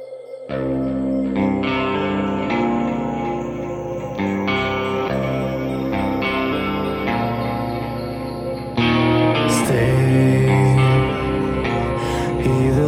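Instrumental rock intro played on Radio Vostok Rossii, with full, effects-laden guitars and steady drums, playing loud and continuous with no vocals, then swelling even louder about two-thirds of the way through.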